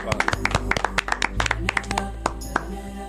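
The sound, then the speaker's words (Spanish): Hands clap in quick, slightly uneven, crisp bursts for about three seconds, with a low murmur of voices underneath before the clapping thins out toward the end. “Tengo un aplaudir bonito”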